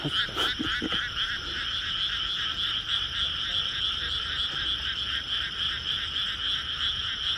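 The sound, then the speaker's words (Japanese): A dense chorus of many frogs croaking together, steady and continuous with rapid pulsing calls layered over one another, fairly loud, with no talking. “カエルは一匹鳴き出すといっぱい鳴くんですね”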